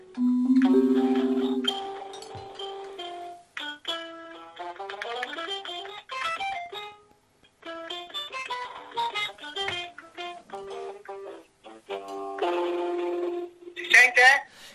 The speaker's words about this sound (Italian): Ma io, io ti avevo preparato una cosa con senti che bel suono, senti. Sentiamo. Eh, dimmi se distorce però. Ah, senti che bello. Che bello. La chitarra non, non si sente?